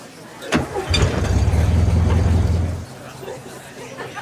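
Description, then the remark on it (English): A single car swishes past on a busy street wet from rain, its tire hiss and low engine rumble swelling quickly, holding for about two seconds, then fading away, with faint background chatter. “This Airbnb is on a busy street. The street is wet from rain. Every time a car drives by”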